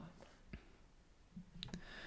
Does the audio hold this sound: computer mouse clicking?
yes